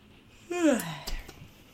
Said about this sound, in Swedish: Du gäspade till och med. Gud, mm. vilken eh, pepp jag fick det av du gäspade när jag... Mitt i en mening.